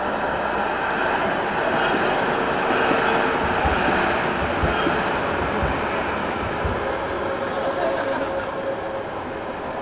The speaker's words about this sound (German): zwischen Roland und Rathaus rauscht immer mal wieder eine Straßenbahn.